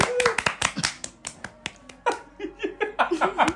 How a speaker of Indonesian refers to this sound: kita iya dulu biar seru yuk kita insert um, efek-efek tepuk tangan